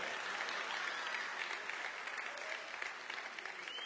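Steady audience applause fills the whole stretch, a dense, even wash of many hands clapping at once with no pauses, holding a fairly constant level throughout.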